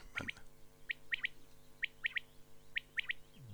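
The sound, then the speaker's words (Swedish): A common quail calls its sharp three-note phrase again and again, about four phrases in quick succession, clear over a faint low background hum. No one speaks. “Den här andra heter vaktel.”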